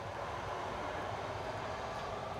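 A train, the 402, rumbles past with a steady, even roar of wheels and engine, holding a constant loudness throughout the short stretch, with no voices.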